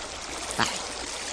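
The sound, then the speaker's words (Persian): A steady, gentle rush of flowing river water runs throughout, with a brief brighter splash or gurgle near the middle. No voices are heard. “شاهزاده جوان قصه ما رفت و رفت و رفت تا به رودخانه زیبایی رسید”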